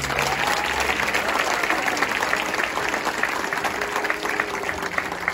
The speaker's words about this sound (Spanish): Puedes darle un fuerte aplauso a Dios.